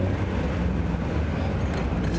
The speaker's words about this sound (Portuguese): tá achando que ela tá mais grave, o escape? É, tá um barulhinho, mas eu não, eu não sei dizer se é porque a última vez que eu andei com você, a gente tava com capota. Não, ela tá, mais grave, tá aqui embaixo.